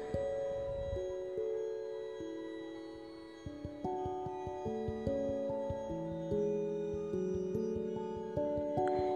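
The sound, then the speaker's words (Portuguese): A grandmother's mobile phone rings with a melodic electronic ringtone, clear and fairly loud, its stepped tones repeating steadily for several seconds with no voices over it. “Esse é o celular da minha avó.”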